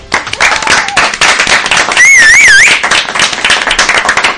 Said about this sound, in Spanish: Chicos, un aplauso.